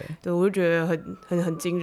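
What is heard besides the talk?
ambulance siren passing outside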